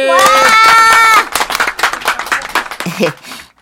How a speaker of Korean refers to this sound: 자, 박수!